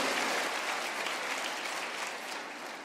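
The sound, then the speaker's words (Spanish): A church audience claps for the Lord, a dense, continuous wash of many hands applauding at once, holding strong for a few seconds before easing slightly toward the end. “Dele el aplauso al Señor y dígale, tú todo lo puedes.”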